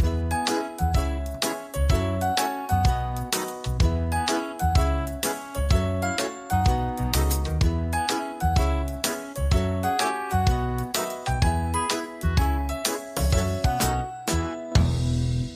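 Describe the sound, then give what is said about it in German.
A doorbell rung by a neighbour dropping something off: a bright, tinkling chime melody that repeats over and over in a steady rhythm, fairly loud and continuous, with no one talking. “Jetzt klingelt's. Wir machen mal auf.”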